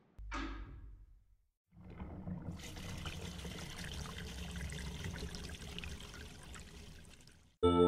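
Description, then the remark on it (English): A steady stream of water pours and splashes into a container for several seconds as two women collect water from a big tank by the road, following a brief knock and a short pause, with a continuous rushing texture. “two women collecting water from a big tank by the road.”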